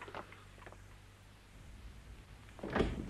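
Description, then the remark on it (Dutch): A house door is handled as someone is let in: a couple of soft clicks and rattles at first, then a quiet pause, and finally a louder clattering thud as it shuts. No one speaks. “Ja, doe die deur maar dicht.”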